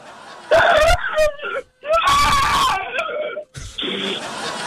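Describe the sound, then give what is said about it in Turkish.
A voice lets out a series of loud, strained shrieks in uneven bursts with brief gaps, imitating screams with a slightly laughing edge. “Ara sıra bağır sesler çıkart ara sıra.”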